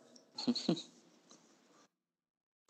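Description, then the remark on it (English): A dog lets out two quick, muffled woofs in close succession, then soft snuffling noises trail off into silence. “Max, hold on a second, please. Max and this greatest dog name ever, by the way.”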